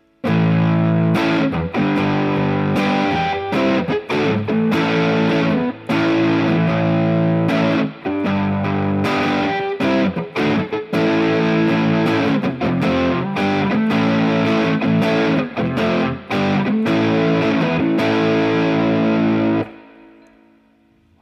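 A loud, heavily overdriven electric guitar, played through the Moor drive channel, plays a chunky riff of sustained, buzzing chords broken by short rhythmic stops, then rings out and fades at the end. No one speaks.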